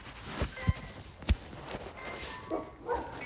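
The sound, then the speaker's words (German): A few short, scattered dog barks, fairly quiet and spaced irregularly, with brief sharp thumps in between and no talking. “Oh nein, diese Hunde die nicht so gern mögen.”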